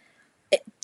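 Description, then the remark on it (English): A single quick, sharp sneeze bursts out after a moment of quiet, followed by a faint breathy catch and a brief rustle. “Bless you.”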